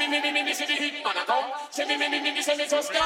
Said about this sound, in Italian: La canzone che inizia adesso invece fa così.